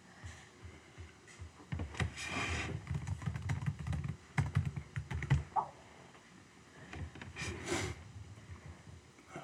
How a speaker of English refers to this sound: Here's this typing thing. Chat thing.